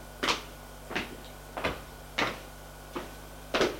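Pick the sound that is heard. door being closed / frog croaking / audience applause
door being closed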